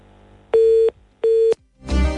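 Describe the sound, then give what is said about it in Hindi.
Two steady, loud telephone line tones, each lasting about a third of a second with a short gap between, followed by a burst of rough, muffled noise as the call connects. “telephone line ठीक है हमारी आपको कोशिश कर लेते हैं”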